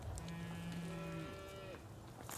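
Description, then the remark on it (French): Two overlapping moos from calves, one low and drawn out, the other higher-pitched and rising, over steady outdoor background noise with no talking. “son petit veau, c'est celui-là.”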